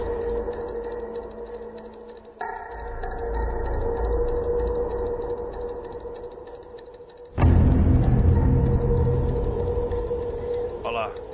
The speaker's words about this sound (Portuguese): Agora vai ter, vai ter o um barulho de relógio.